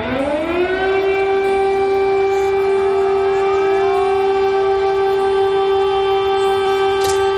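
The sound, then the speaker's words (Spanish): An air raid siren of the kind heard almost daily in wartime cities such as Kyiv winds up over the first second, then holds a loud, steady wailing tone with rich harmonics, continuous and unbroken, with no voices present. “la realidad es que en ciudades como Kiev sus ciudadanos intentan vivir normalmente. No es fácil, claro, teniendo en cuenta que casi a diario tienen que convivir con un sonido como este.”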